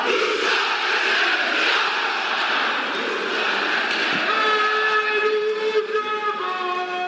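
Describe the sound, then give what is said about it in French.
Real Genève-Servette ice hockey fans roar and chant in a packed rink in Switzerland, a loud, dense wall of crowd noise, joined partway through by a long, sustained horn-like blast over the din. “Ces supporters-là, c'est les supporters des hockeyeurs de Genève Servette, donc oui, des vrais supporters, hein, pas une bande son.”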